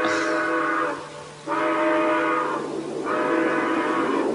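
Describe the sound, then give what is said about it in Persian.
A steam train running at night sounds its whistle in three long, steady blasts with short breaks between them, rich and loud, over a low rumbling undertone, with no one talking. “قطار بی خود هر ایسکایی با میسه این وقت شب که مسافری جا به جا نمیشه حالا همه خوابن باید آتیشش رو زیاد کنه و یه سره بره”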